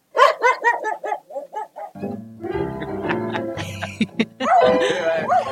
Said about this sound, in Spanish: Yo creo, pues, a ver, escuchemos lo que respondió el perro. A ver.